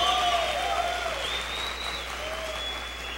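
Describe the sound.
A church audience breaks into a sustained round of applause, thanking God for its pastors, dense steady clapping at an even loudness throughout, with faint tonal voices or feedback drifting over it.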